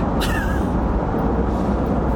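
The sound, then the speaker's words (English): A bus idles with a steady low rumble, broken near the start by a quick sharp air-brake hiss and a short squeal sliding downward. “this bus is gonna take 30 seconds.”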